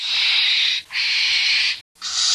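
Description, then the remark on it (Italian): A barn owl's harsh, hissing screech, given as three long raspy bursts with brief gaps between them, loud and noisy with no clear pitch, no other sounds around it. “E poi tra l'altro il verso del Barba Gianni è questo.”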